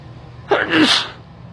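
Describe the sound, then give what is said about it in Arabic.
A single sharp sneeze bursts out, a quick explosive rush of breath that trails off after about a second, with a low steady hum underneath. “الحمد لله رحمك الله يهديك الله ويسلمك”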